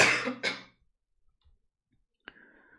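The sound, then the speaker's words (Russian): A rough cough in two quick bursts at the start, followed by near silence and then a single sharp click with a faint ringing tail. “Кто-то кашляет у нас? Это я кашляю.”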